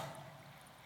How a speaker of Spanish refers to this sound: Aquí tengo una botellita de agua. Y si yo lleno este vaso,